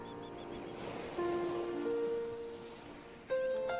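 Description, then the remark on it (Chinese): A steady hiss of surf washes through the whole clip, with sustained musical tones swelling in over it partway through and again near the end. No one speaks. “有没有去感受海的声音？”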